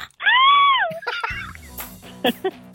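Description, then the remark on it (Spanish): A cat, Jerónima, lets out one sharp yelp after being stepped on, rising and falling in pitch for under a second, followed by quieter shuffling and a couple of brief background noises. “Ese gritito que escuchamos es el de mi amiga Jerónima.”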